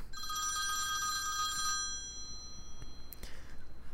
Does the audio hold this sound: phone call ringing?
yes